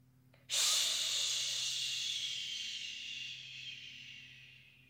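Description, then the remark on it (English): A voice makes a long, steady hissing exhale through the mouth during a breathing exercise, imitating water running from a faucet; it starts abruptly and slowly fades over several seconds, fairly loud. “Then, when we breathe out, we're going to let the water come out of our faucet while our mouth makes the water noise, like this.”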